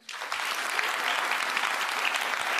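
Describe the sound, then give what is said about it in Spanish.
Steady applause from a group, a dense crackling wash of many hands clapping that starts abruptly and holds at an even, fairly loud level throughout, with no voices on top. “A mí me parece que fue su aplauso.”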